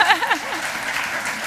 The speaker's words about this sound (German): Und ich finde, das hat auch nochmal einen Applaus verdient.